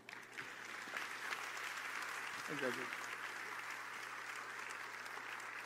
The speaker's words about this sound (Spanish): Dale un aplauso